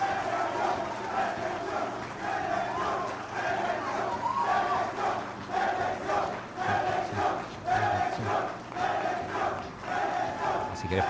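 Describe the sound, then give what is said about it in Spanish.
A large crowd cheers, applauds and shouts continuously, a dense roar of many voices with rising and falling bursts of chanting, sustained and loud throughout, as the president of El Salvador announces his run for the presidency. “Vale, los aplausos, los víctores.”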